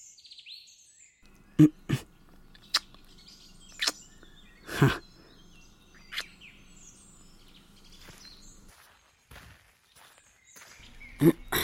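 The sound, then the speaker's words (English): Several sharp footsteps at an uneven pace, loud at first and then softer as they move off, with faint birdsong chirping in the background. “You can't just kiss me like that and then walk away.”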